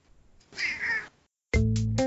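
Kittens meowing: a thin, drawn-out mew first, then after a short pause a louder, sharper cry that cuts off abruptly. No one speaks.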